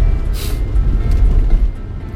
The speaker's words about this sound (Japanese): あのその概要欄のところ確かに今ちょっと車運転中だからよく見えない